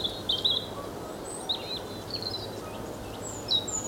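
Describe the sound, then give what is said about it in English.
A Dartford warbler gives short, harsh scolding calls in scattered bursts at a person standing in a gorse bush, over a steady outdoor background hiss with no one talking. “And I've just been sworn at by a Dartford warbler.”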